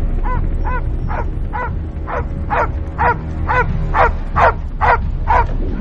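A dog inside a car barks repeatedly in a steady, rapid series of about a dozen sharp barks, fairly loud, over a low rumbling background like an idling engine.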